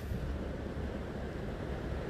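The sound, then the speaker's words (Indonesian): A steady, continuous rush of surf, like waves washing onto a shore, with a deep low rumble and a hissing top. It stays even throughout, with no distinct single breaks and no voices. “Kira-kira demikian ombak dan kreativitas itu.”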